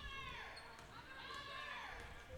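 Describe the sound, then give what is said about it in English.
A basketball thuds a few times on a hard gym floor as it bounces out of bounds during a high school game between Port Huron High and Northern, fairly faint amid squeaking sneakers and a murmuring crowd, with indistinct voices in the background. “no foul called, and it'll go back to Port Huron high as the ball bounces out of bounds.”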